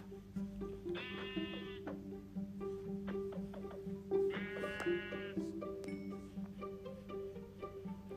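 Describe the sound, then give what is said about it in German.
A white sheep bleats twice, each a wavering, nasal baa lasting about a second, separated by a short pause, over a steady low hum with scattered soft clicks. “Da ist noch ein weißes Schaf.”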